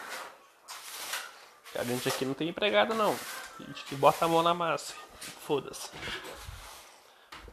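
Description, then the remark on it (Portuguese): Scratchy swishes of a broom sweeping the floor, including under things, come in short repeated strokes, mostly under and between a man's speech. “Esse barulho que vocês estão ouvindo é de vassoura.”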